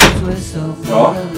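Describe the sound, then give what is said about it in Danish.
A door standing ajar at the top of a staircase is pushed open, starting with a short knock of contact and followed by a drawn-out, tonal creak of the hinge, fairly loud. “Da jeg kom op ad trappen, stod hans dør på klem.”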